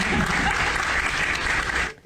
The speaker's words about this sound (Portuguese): E aí tá ali, você viu, né, o governador de São Paulo batendo palmas para Joyce Hasselman, que agora com este apoio o Dória vai subir mais ainda.